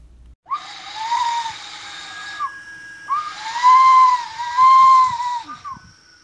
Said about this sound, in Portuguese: Vocês ouvem esse barulho? Eu ouço. É o vento. Aqui tem muito vento. Aqui nas missões. Muito vento, muita história.